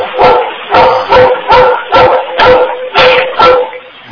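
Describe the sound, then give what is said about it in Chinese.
A dog barks steadily, about eight sharp, mid-pitched barks in a regular rhythm, each clear and fairly loud, with no talking over them. “你家里有狗啊？”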